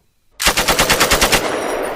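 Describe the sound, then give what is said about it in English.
A loud burst of rapid gunfire, about ten shots in quick succession, followed by a dense, lingering reverberant wash as the shots echo through a long tunnel. “There are shots all around you.”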